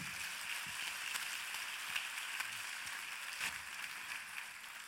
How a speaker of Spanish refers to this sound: Ahora dale un fuerte aplauso al rey.